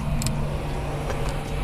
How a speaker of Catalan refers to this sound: Aquest és el so d'un dels làsers en un dels laboratoris de l'ICFO.